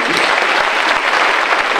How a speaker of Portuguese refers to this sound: Pode fechar a Bíblia Sagrada e dar uma salva de palmas bem forte para Jesus.